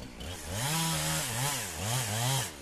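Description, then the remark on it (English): A chainsaw, finally started, runs steadily and loudly, its engine pitch rising and falling in repeated revving surges over nearly three seconds, with no voices. “finally, you get the saw running.”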